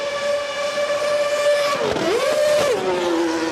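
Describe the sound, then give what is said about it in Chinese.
Daniel Ricciardo drives a Formula One race car on Broadway street in Tennessee, USA, before about 30,000 spectators, drifting and doing four donut spins with burning tyres; its loud, high engine whine holds steady, then dips and climbs back up with a rush of noisy tyre hiss, no voices. “在田纳西州的百老汇大街尽情漂移，澳洲 F1 车手 Daniel Ricciardo 走过伤势，重新回到 F1 座舱，还在从没想过的热闹街道上演拿手的铁甜圈甩尾。”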